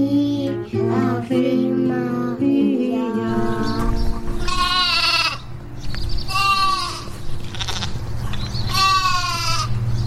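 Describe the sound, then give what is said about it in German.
Several sheep kept in a garden bleat loudly and repeatedly, their wavering, harmonic cries overlapping in bursts, with a steady low rumble of background noise underneath. “Die haben das aufgenommen und die haben selber Schafe im Garten und das waren ihre Schafe.”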